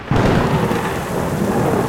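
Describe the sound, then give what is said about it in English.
A heavy thunderstorm in Tustin Meadows on July 16, 1995, with torrential rain pouring down steadily, a deep rumble of thunder rolling underneath the loud, continuous hiss of the downpour. No voices. “We had a torrential downpour.”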